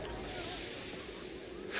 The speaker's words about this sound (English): The sound of our flames turning to steam caused an eerie hush to descend, and the voices inside quickly vanished behind its fading hiss.